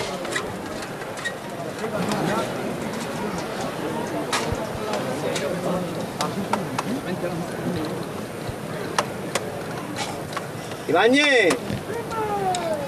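Sharp metallic knocks as the capataz strikes the llamador knocker of the palio float of Nuestra Señora de Montserrat, on calle Cristo del Calvario, ring out repeatedly, spaced irregularly, over a steady murmur of a crowd, with a brief wavering tone rising near the end.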